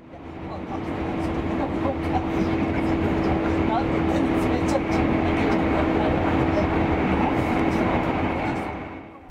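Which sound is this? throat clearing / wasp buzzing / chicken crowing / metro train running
metro train running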